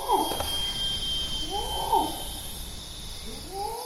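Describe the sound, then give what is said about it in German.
Steady, shrill cicada drone fills a Sumatran rainforest soundscape, while a male orangutan's deep, rising-and-falling long call pulses repeat at intervals beneath it. “Zikaden und die Rufe eines Orang-Utan-Mannes, sogenannte Long Calls, prägen die Klanglandschaft.”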